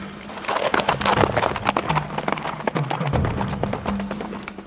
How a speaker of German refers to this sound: Das Pferd setzte sich in starken Trab.